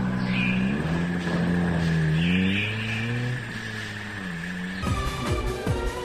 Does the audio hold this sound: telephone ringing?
no